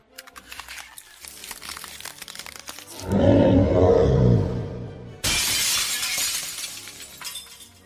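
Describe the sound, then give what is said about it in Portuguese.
A magical barrier breaking: a loud crystalline shattering bursts out, glassy fragments crackling and tinkling over a deep rumbling roar that swells, then cuts to a bright, hissing spray of breaking shards. “A barreira se rompe, vocês escutam um barulho dela se rompendo.”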